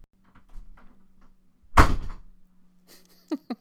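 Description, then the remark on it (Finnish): A door is pushed shut with a single solid thud that rings out briefly, preceded by faint shuffling and followed by a few small clicks of the latch settling. “Kunnolla laita ovi kiinni.”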